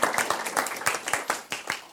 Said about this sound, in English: And I just think we need to a round of applause to all the ladies here today for just being on their knees praying for us.